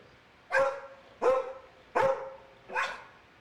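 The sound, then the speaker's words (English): A dog barks four times at a steady, even pace during an interview, each bark loud with a short gap between, and no one talks over it. “Ladies and gentlemen, the dogs.”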